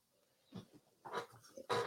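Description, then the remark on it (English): A few short, sharp dog barks come at irregular intervals, fairly quiet, with the last bark the loudest. No one speaks. “Love the dogs.”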